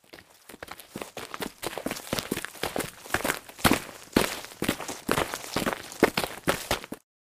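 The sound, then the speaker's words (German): Footsteps of three people walking together toward a hut, their steady, overlapping steps forming a busy, uneven rhythm of sharp scuffing thuds for about seven seconds, with no talking. “Die drei machten sich auf den Weg zur Hütte.”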